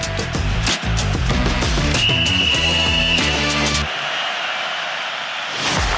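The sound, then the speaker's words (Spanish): A single sustained referee's starting whistle blast sounds over upbeat music, followed by a burst of broad, hissing crowd-like noise as the music drops away. “Que suene el silbatazo inicial.”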